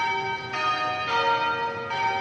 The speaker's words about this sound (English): the church bells at St. George's Anglican Cathedral ring in tribute to Archbishop Desmond Tutu